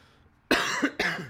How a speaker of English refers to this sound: I am sorry for coughing again, guys. That's that's a penalty on me.